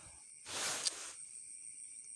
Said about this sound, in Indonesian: ini gue nge-record di tengah sawah dengan background suara jangkrik suara kodok yang mana cuaca habis hujan dan gue nge-recordnya jam 2 pagi dimana jam itu ya masih sunyi-sunyinya suasana lah